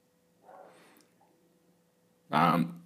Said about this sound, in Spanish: paréntesis, los perros están ladrando, así que esto se convirtió otra vez en Roma.